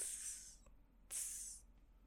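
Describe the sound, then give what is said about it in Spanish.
A voice imitates the hiss of a light-coloured snake that came up behind a group sitting under palms eating: two sharp, breathy hisses, each about half a second long, separated by a short pause. Fairly loud, no other speech. “Y empezamos a escuchar que hacía...”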